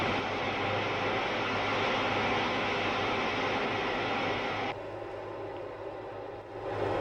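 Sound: white noise test signal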